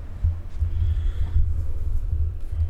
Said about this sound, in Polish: właściwą stronę mikrofonu trzymam za oknem, mówię do tyłu mikrofonu. Wiatr zawiał, nie wiem czy będzie. Tak teraz zaczął wiatr wiesz trochę.